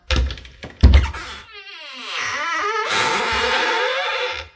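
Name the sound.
door unlocking and opening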